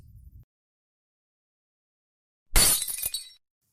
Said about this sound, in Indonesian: Lampu pecah, gelap gulita.